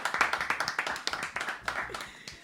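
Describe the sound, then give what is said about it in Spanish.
A short burst of applause welcoming a guest on a típico music program: several people clapping in quick, fairly steady rhythm, the claps sharp and moderately loud, with faint background murmur underneath. “Aplauso para”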